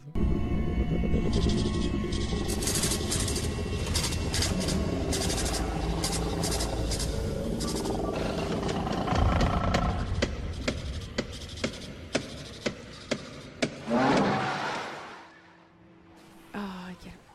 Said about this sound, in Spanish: eh, explicaban un poco como básicamente los sonidos como que eran una mezcla entre weas como eh, mecánicas y otras más orgánicas. Y yo, yo solita hice un análisis eh, del, del, sonido que emitía el, humo negro. Lo van a escuchar en este momento.